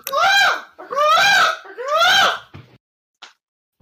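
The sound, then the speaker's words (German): A voice imitates a toucan's call with three loud, croaky squawks in quick succession, each rising and falling in pitch, followed by a couple of faint clicks. “Das ist das Vogelgeräusch für jeden Vogel.”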